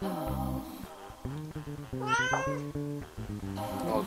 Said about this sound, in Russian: Кот, который не дает мне сегодня ничего записывать, ходит, орет, делает вид, что голодный.